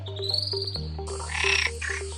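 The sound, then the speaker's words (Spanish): Field recording of frogs calling in steady, repeated pulses over a low continuous drone, with brighter bird chirps rising in the background partway through. No one speaks. “Y muchas de esas escuchas que hacemos de las aves, de esas escuchas que hacemos de los anfibios, tienen una firma característica.”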